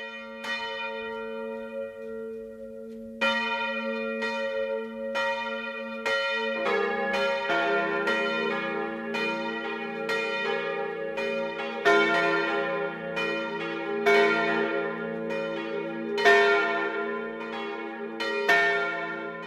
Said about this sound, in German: Es ist 12 Uhr. Das Mittagsläuten kommt heute aus Fuchsmühl in der Oberpfalz.